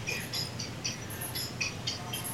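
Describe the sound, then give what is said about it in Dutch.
A phone ringtone plays a pop song, its tinny, high-pitched melody notes pulsing in a steady rhythm, fairly faint and heard alone without any talking, going off in the middle of an interview. “Oh, wauw, daar gaat mijn telefoon met een hele mooie ringtone.”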